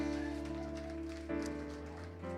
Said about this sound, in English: Can we give a round of applause for Laura?